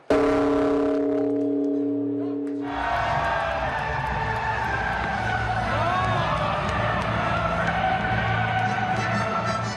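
A deep bell at a Buddhist temple in Tokyo, Japan, struck by monks to welcome the new year, hums with a steady, resonant tone for a few seconds before cutting off, replaced by a dense wash of crowd noise and outdoor bustle.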